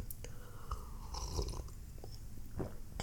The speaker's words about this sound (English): Let me take a sip of my coffee because I rambled for a little bit.